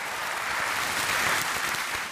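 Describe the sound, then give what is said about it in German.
Thin, lukewarm applause from the audience at the 2015 CSU party convention for Merkel's speech rejecting an upper limit on refugees, a steady patter of clapping at moderate volume that carries on for a couple of seconds without cheers or voices. “Für ihre Rede bekommt sie kaum Applaus und dann betritt der CSU-Chef Horst Seehofer die Bühne.”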